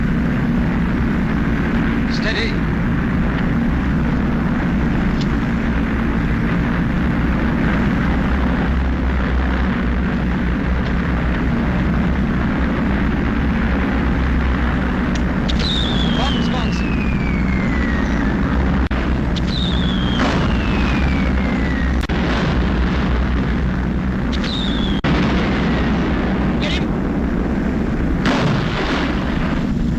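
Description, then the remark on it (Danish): A British Vickers Wellington bomber drones steadily while its bombs fall, several high descending whistles sliding down in pitch, followed by sharp bursts and rumbling blasts in a loud, dense din. “Vi hører det britiske bombefly, og det er sådan en Vickers Wellington kaste sine bomber”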